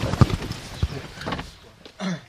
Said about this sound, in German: Schon das Türschließen, wie Sie gleich hören, ist anders als gewohnt.